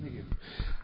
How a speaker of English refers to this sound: Oh, bless you. Thank you.